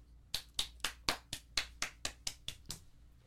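Hand clapping in a steady series of about ten sharp, bright claps, evenly spaced at a brisk pace, with no talking over them.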